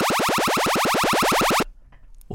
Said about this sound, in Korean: 이거 뭔지 아세요? 우리 게임하는 것 같기도 한데 외계인 공격 소리입니다. 네, 외계인 공격 소리.